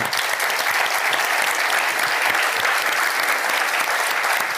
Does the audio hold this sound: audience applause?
yes